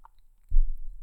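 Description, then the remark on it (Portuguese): A sip of water being drunk: a faint mouth click, a short pause, then a low, muffled gulping swallow that lingers for about half a second. No one speaks. “Pois é, malta, uh, deixem-me desde já começar com um golo de água.”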